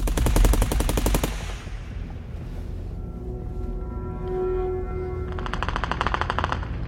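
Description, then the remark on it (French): Two rapid bursts of automatic weapon fire from gang members defending a house against a RAID police assault: a loud rattling volley at the start and another after a pause, with a faint whining tone in between. No one speaks. “En plus des rafales d'armes automatiques, les membres du gang se défendent en lançant plusieurs vieilles grenades tchèques au phosphore.”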